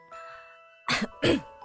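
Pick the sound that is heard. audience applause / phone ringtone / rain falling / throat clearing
throat clearing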